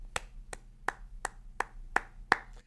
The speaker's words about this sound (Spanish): Creo que vale mucho la pena que le demos un aplauso.